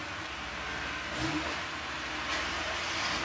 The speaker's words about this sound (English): sports car.